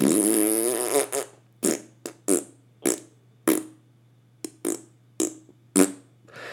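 A loud fart noise: one long buzzy, rasping blast, then a string of about ten short, sharp puffs spaced irregularly over several seconds, with a faint steady hum underneath and no talking.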